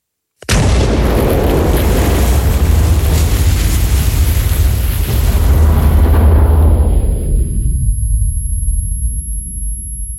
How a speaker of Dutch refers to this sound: Maar op het moment dat dan de eerste dreun echt komt en echt de grond letterlijk trilt en je de stukken van de bom